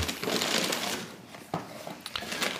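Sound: rummaging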